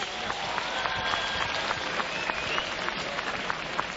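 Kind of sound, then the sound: crowd, crowd applause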